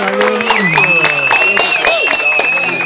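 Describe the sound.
A round of applause, with sharp, irregular claps scattered across a few seconds, mixed with sustained voices that may be cheering or someone talking over the clapping.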